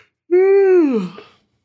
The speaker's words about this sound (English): Big yawn.